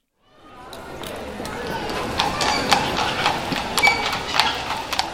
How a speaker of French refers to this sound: Aux Invalides, donc, près d'un boulevard, donc une voiture, euh, la voiture hippomobile, un petit fiacre avec euh, deux chevaux et un monsieur qui est en train de rouler une cigarette euh, tranquillement dessus avec sa petite casquette.